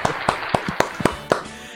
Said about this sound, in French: Merci à ces 10 000 personnes qui viennent d'applaudir.